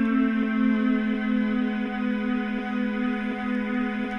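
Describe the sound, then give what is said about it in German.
A steady synthetic electric-vehicle acoustic warning (AVAS) hum, shifted lower by reducing the pitch factor, with stacked tonal harmonics and a faint pulsing wobble, sounding continuously with no voices. “den Faktor verringere, dann wird deutlich tiefer wieder zurückgepitcht.”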